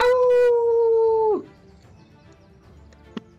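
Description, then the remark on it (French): A single loud, sustained wolf howl holds a steady pitch for over a second before sliding down and cutting off, followed by near quiet and one faint click. “Euh, à ce moment-là, à la dernière attaque du loup, vous entendez dans la forêt, par ici, des, des pas qui font.”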